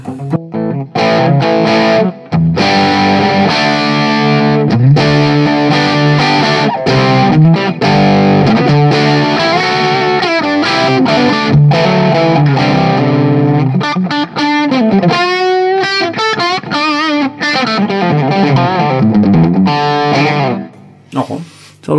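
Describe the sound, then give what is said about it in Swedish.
Heavily distorted electric guitar played through the JCM 800 channel of an amp, loud and continuous with thick chugging chords, sustained notes and a wavering bent lead phrase, ending with a brief drop out. “här är nu JCM 800-kanalen då.”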